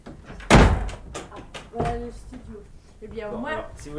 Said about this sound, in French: Rien que le bruit de votre porte était une musique concrète.